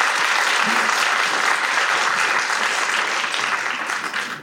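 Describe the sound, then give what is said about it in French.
Sustained audience applause, a dense steady wash of many hands clapping at an even, loud level throughout, easing slightly at the very end. No voices stand out. “Donc vraiment je tiens à ce qu'on les remercie, qu'on les applaudisse particulièrement.”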